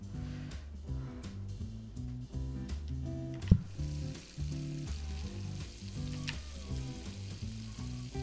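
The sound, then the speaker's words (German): Steady crackling sizzle of food frying on a grill, running for several seconds alongside a looping, tuneful melody, with a single sharp click partway through and no voices. “knall mal direkt was also auf den Grill, oder?”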